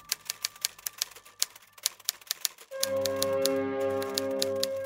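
Rapid, uneven typewriter keystrokes clack as someone types on paper, and partway through a low sustained hum or music-like drone rises beneath the continuing taps.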